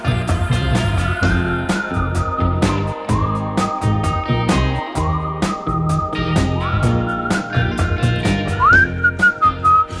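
A bright whistled pop melody with sliding notes rides over a steady, punchy backing track of drums and bass, loud and upfront for the whole stretch, with no one talking.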